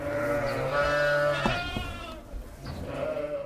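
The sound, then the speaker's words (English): Sheep bleat repeatedly on a farm, a wavering, nasal call rising and falling over several seconds, with a second bleat overlapping near the end, fairly loud with no talking. “You have, again, you have seen uh, the lamb on the farm during the summer.”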